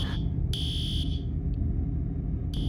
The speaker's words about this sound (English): Witnesses said the multiplex's fire alarm system began sounding soon after the attack, and staff told people in Theater 8 to evacuate.